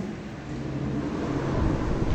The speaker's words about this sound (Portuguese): Epa! Alguém pode desligar o ventilador, por gentileza?